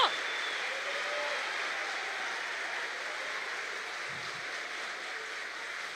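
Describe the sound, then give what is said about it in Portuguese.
A large crowd applauds steadily at a preacher's call to applaud what God is doing, a dense, continuous wash of clapping that holds at an even level for several seconds, sounding full with no voices standing out. “Aplauda o que Deus está fazendo.”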